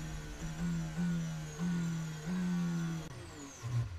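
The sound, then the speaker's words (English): A race car engine drones loudly as the car comes down the start-finish straight during a race, its pitch stepping up in a few surges like gear changes, then the steady note suddenly drops away as the engine cuts out near the end, leaving a rougher, sputtering sound. “Down there, and then the engine just cuts.”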